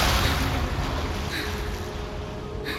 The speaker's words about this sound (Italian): L'onda violenta mi colpisce, spazzandomi via e riportandomi nel labirinto di tunnel. Nuoto verso l'alto, cercando di emergere.